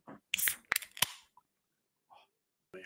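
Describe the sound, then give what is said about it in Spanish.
A Rockstar guaraná energy drink can being cracked open: a few sharp metallic clicks with a short burst of fizzing hiss, then a couple of faint, scattered handling sounds. “Esa lata está bien hecha, ¿eh? Oh, huele, huele bien.”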